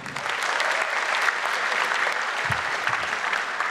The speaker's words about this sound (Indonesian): Iya, Tepuk tangan dulu buat Om Indro.